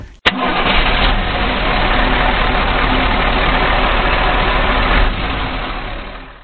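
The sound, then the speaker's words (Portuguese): A big engine cranks over and fires up, then settles into a loud, steady, rumbling roar that holds for several seconds, unaccompanied by voices. “E agora a gente vai ligar aquele motorzão, vamos chamar aquele motorzão daquele som, aquele barulho bruto.”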